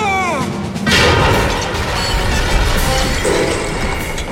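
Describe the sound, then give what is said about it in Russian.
Giant stone chess pieces smash and crumble one after another in a Harry Potter wizard's chess game, a loud, continuous barrage of crashing and rumbling debris, heavy, with a sharp burst of impact about a second in and no voices. “Игра в полном разгаре. Одна за другой рушатся фигуры.”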